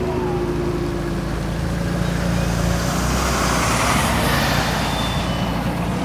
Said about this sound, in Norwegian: Like etter klokka ni kommer 600 politifolk kjørende på snøscootere, i biler og vannvogner.